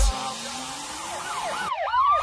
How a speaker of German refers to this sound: Sirenen heulen blaulicht hinter mir.